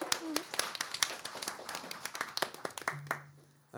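Audience applause for a speaker at a debate: many hands clapping in a dense, uneven patter of sharp claps that holds steady for a few seconds before thinning out and stopping.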